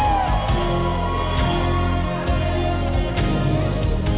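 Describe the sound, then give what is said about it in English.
An audience at a worship service screams and whoops in a loud, sustained roar, many voices overlapping for several seconds, with a steady tonal backdrop underneath. “So put your hands. Somebody scream. Woo!”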